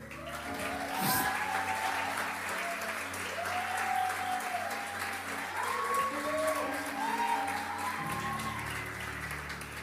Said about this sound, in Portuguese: Gostaria de chamar aqui na frente com uma salva de palmas bem forte.